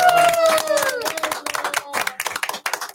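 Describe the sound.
A group claps in steady applause, a dense, uneven patter of sharp claps that carries on throughout, with a voice calling out over it at the start.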